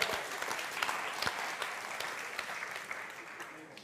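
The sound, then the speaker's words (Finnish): Steady audience applause at a talk after someone comes forward to take a 20-euro note, a dense crackle of many hands clapping at an even level for the whole stretch, with a few sharper individual claps standing out and no voices on top. “No niin, aivan upeeta. Aplodit.”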